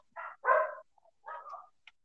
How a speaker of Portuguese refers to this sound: Agora meus cachorros enlouqueceram aqui, que não tá dando pra falar mais nada.